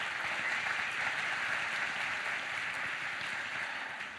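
An audience applauds with dense, steady clapping that holds at an even, fairly loud level for about four seconds, easing slightly at the end, with no voices over it.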